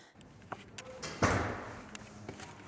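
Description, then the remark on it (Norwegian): Knocking on the door of professor Jan Olav Henriksen at Det teologiske menighetsfakultetet in Oslo: a few scattered, irregular raps followed by one louder, resonant thud, with no talking. “Jeg tar turen til Det teologiske menighetsfakultetet i Oslo og banker på døra til professor Jan Olav Henriksen.”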